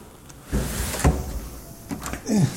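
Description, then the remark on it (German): A door at the passage to the Westerturm tower opens with a short run of clunks and a scraping rattle, followed by a brief creak as it swings. “Tür auf.”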